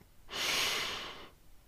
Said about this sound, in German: Wir atmen ein